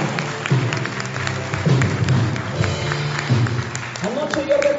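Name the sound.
audience clapping loudly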